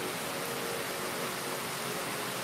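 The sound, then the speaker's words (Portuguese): Steady rainfall hisses outdoors in Recife, Brazil, a dense, even wash of sound with no distinct drops or pauses, moderately quiet and continuous throughout, with no voices. “Vai curtindo o som da chuva, é, o, que é verdadeiro aqui, tá? Chuva mesmo aqui.”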